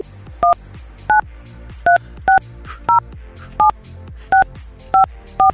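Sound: telephone dialing tones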